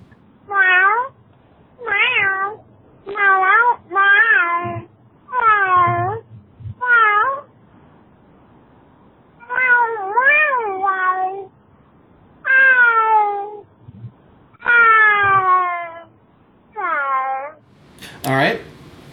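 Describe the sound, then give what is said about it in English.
A cat, TC, meows over and over, about a dozen drawn-out, wavering cries in uneven bursts with short pauses between them, carried over a phone line from an unknown caller, ending with a brief crackle. “Yep, that sounded like TC. I don't know how she got a phone.”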